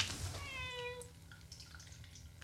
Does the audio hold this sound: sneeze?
no